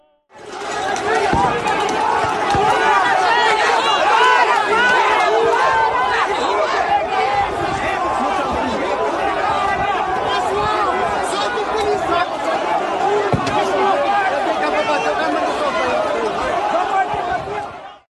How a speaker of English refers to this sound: That was the sound of supporters of former Brazilian President Jair Bolsonaro as they assaulted a lone police officer on horseback who stood in their way as they pursued their assault on the Brazilian capital just under a week ago.